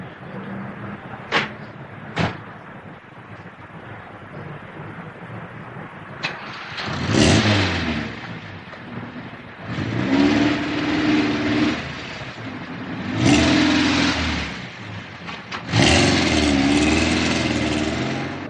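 Two sharp clicks like a car door as a man gets into a car in Seville, with the Torre del Oro and the Giralda in the background, then an engine turns over and revs in several loud, rising surges with a low droning hum as the car pulls away. No one speaks.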